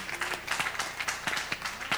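A church audience claps together in a dense, continuous patter with a loose rhythmic pulse of stronger beats, moderately loud throughout, with no voices standing out.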